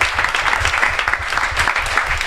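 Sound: applause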